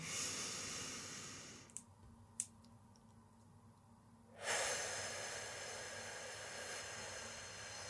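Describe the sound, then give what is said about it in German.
Breathing in through the nose during a breathing exercise, one hand on the belly: a soft, airy hiss, then a quiet pause with a couple of tiny clicks, followed by another long, steady breath. No one speaks. “Hand auf den Bauch, in der anderen Hand ist die Pusteblume und atmen durch die Nase.”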